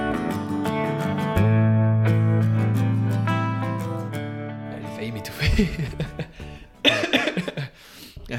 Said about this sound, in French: ça commence avec quelqu'un qui s'étouffe. ça commence, ça commence fort.